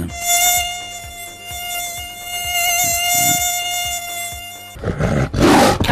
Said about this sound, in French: il faut savoir que le moustique tigre est noir avec des rayures blanches et qu'il émet un son bien particulier. Écoutez, nous avons enfin le vrai son du moustique tigre.